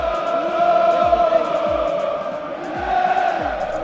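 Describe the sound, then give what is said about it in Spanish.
A large stadium crowd shouts in a loud, continuous roar that fills the whole stretch, with a few rhythmic low thumps and sharper bursts rising through the din. “El griterío de la gente en un estadio.”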